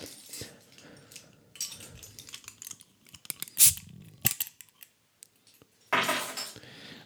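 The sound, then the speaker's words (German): A bunch of metal keys (house door, cellar, door and mailbox keys plus a shopping-cart chip) jingles and clinks in irregular bursts, with a sharp rattle near the middle and a louder shake toward the end, amid faint handling noise. “Das ist auch ein ganz ein Klimperschlüssel.”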